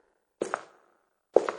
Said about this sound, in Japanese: 夢の内容はこうです。夜、寝ていると外で足音が聞こえる。